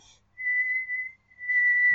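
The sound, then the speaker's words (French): A person whistles one long, shrill note held at a steady high pitch, briefly broken in the middle and then resumed, loud with no talking over it. “Je, me mets à siffler un long sifflement bien strident, tu vois, le...”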